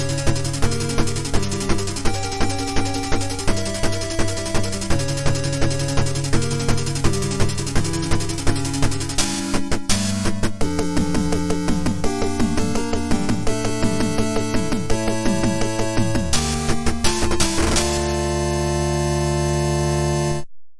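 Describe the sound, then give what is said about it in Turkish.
Bright, chiptune-style music from a 1983 Konami arcade game, built from pure sine-wave tones, with a bouncy syncopated melody over steady bass notes, loud and continuous with no voices, playing in the right ear. “Yine sinüs dalgası bak.”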